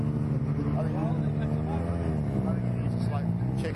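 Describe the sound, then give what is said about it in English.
A diesel vehicle engine rumbles loudly and steadily, a deep throbbing drone throughout the few seconds, with indistinct voices faintly mixed in over it. “Oh, the dirty diesel.”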